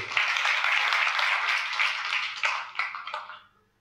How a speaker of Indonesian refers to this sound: Tepuk tangan untuk diri Anda sendiri.